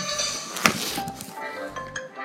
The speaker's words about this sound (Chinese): 妈妈把锅子装上水，放上炉子，水热了，她撒进一些盐